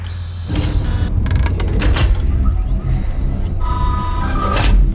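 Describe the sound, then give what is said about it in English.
The heavy north airlock door clunks and ratchets as it unlocks, then slides open with a whirring motorized hiss over a low steady hum, fairly loud. “Unlock the north airlock.”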